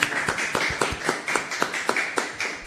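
Applause fills the studio to welcome a visiting guest on a morning show: steady, brisk clapping with sharp, roughly even beats about five per second, moderately loud, with no voices over it.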